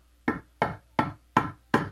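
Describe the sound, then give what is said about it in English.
Five firm knocks on a door, evenly spaced about a third of a second apart, loud with no voices around them. “Knocking at the door.”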